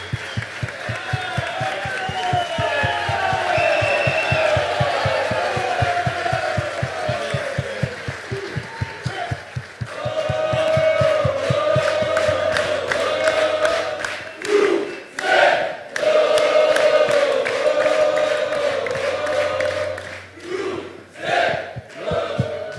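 audience applause and cheering

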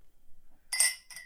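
glasses clinking

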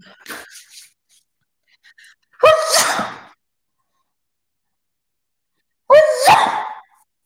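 repeated sneezing

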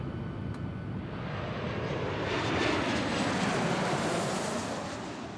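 airplane engine

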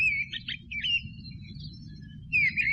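birds singing

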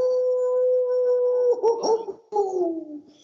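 dog howling

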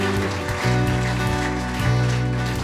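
audience applause

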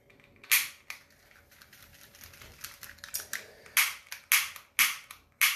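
lighter being flicked

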